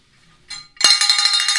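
A brief rustle, then a bell is struck once and rings out with a bright, high, shimmering metallic tone that sustains steadily without fading. No one speaks over it.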